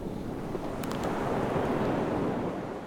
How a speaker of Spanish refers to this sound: El agua, el mar, toman sus cauces sin esfuerzos. Se dejan llevar. Obsérvalo. Escúchalo.